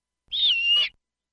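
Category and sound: bird, snowy owl call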